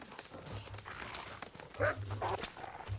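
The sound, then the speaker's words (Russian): A wolf in a video game growls and lets out a couple of sharp barks midway through, loud, over a steady low rumble with faint thudding footsteps as the player runs away from it. “Слушайте, это я от волка уже вон по несколько километров бегу.”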